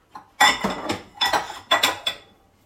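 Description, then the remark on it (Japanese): Dishes and cutlery clink and clatter in several quick bursts as they are handled in a kitchen, fairly loud, with no talking. “分かるような気がしますね、食器触ったり、まあ、料理したり洗い物したりコンロも掃除したりとか”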